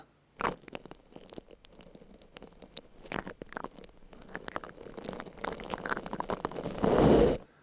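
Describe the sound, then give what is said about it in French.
Bristly scratching and rustling as a microphone is rubbed against a beard, in uneven strokes that grow denser and louder toward the end before stopping abruptly. “Sur la barbe.”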